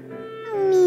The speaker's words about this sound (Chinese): 喵，妈妈在哪儿啊？ 一声哭叫从角落里传来。